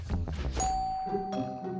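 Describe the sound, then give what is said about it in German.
A doorbell chime rings out with a bright sustained tone that rings on and slowly fades, over a busy bed of music or background sound. “Ich mache ihm mal die Tür auf.”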